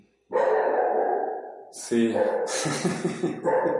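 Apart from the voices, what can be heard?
dog barking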